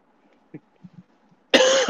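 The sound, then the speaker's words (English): A single loud cough from a person recovering from an illness bursts out near the end after a near-silent stretch with a few faint soft noises, its harsh raspy burst running to the very end. “I have this like weird cough.”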